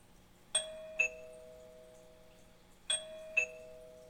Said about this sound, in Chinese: 门铃又响了，拜托拜托拜托拜托，希望是我很想要的小动物。